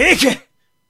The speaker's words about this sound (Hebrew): לבריאות.